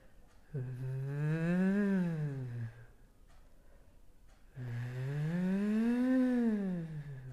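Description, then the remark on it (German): Two buzzy lip-trill sirens done as a vocal exercise in a comfortable pitch range, each a smooth voiced glide that rises in pitch and sinks back down, lasting about two seconds with a short pause between them, steady and moderately loud. “ist ein bisschen wie Kammblasen. Ja, du spürst, es vibriert, wenn du die Luft dadurch schickst. Und da machen wir jetzt Sirenen in angenehmer Lage.”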